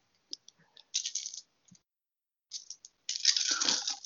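Dice rattle and clatter across a hard surface in two bursts, a short roll followed by a longer, louder tumble, with a few scattered light clicks between them and no voices.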